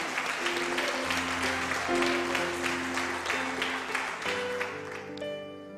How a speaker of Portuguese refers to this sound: Forte aplauso, Senhor Jesus.